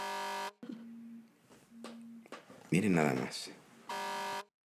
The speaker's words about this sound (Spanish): Es una alarma que se me olvidó apagar. ¿Para qué? Para despertarme, porque es la hora la que tomo mi siesta.